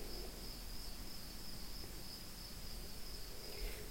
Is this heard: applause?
no